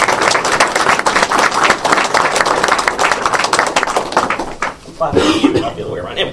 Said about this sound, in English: Uh, so I'd like to clap for myself.